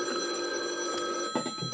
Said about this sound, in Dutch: Hè, die telefoon weer.